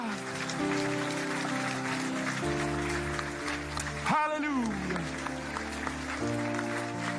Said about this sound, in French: Et que son peuple applaudisse.